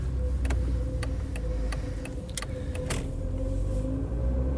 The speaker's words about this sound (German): Gemächlich steuert der bärtige Taxifahrer den Wagen durch die Hauptstraße.